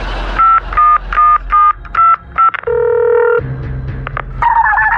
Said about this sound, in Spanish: Le voy a marcar esta maldita a la novia de Vicente Junior.